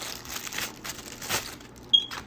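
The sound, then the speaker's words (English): Plastic packaging of a Marvel Howard the Duck action figure is pulled open with bursts of crinkling and rustling that come and go, ending in a short, sharp squeak as the plastic gives. No one speaks. “Um, now I'm going to go ahead and open up what seems to be Howard the Duck, which I'm really excited to have.”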